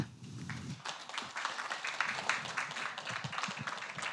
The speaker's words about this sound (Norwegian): Og vi gleder oss veldig til å høre henne prate. Så da syns jeg vi bare skal gi henne en varm applaus.